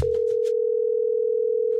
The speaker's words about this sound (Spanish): pero mientras suena el teléfono te das cuenta de algo